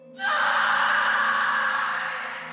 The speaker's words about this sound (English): And what this causes is Pavetta to scream.